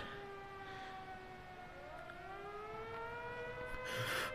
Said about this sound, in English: Wait, that. That's the siren from town. Is that to make sure people stay inside?